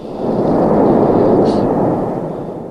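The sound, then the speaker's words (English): A loud, deep roar from a volcanic explosion as magma gas bursts, a dense rumbling blast that swells quickly and holds for a couple of seconds before easing slightly, with no voices. “Well, the big booms that we're hearing are huge gas bubbles in the magma that are popping open.”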